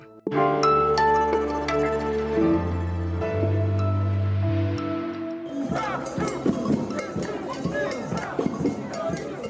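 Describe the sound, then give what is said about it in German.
Sustained, steady musical tones fade out, and after about six seconds a loud crowd at a 2019 anti-nuclear demonstration in Nancy, France takes over: many voices overlapping in a dense, restless clamor with occasional sharper shouts. “Das, was Sie gerade gehört haben, das war eine Demo aus dem Jahr 2019 im französischen Nancy gegen Atomkraft.”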